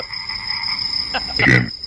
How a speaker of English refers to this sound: the Budweiser's bringing out all the old ones. Here we go. Here's the frogs.